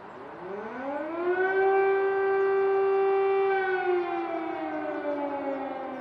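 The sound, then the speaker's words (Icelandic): An air raid siren going off in wartime winds up from a low growl to a steady, loud wail with rich harmonics, holds the tone for several seconds, then begins to slowly drop in pitch. “tvísva sinnum þennan tíma sem við vorum þá fóru loftvarnaflauturnar í gang”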